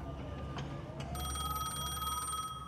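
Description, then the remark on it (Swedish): A telephone bell in a home in Pripyat starts ringing partway through, a steady bright metallic trill with sustained high tones, over a low background rumble. “Det ringer.”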